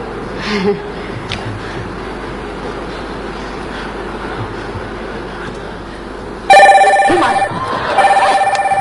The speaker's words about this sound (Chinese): 来电话了， 嗯来电话你就不接得了，你给摔坏了干啥玩意儿？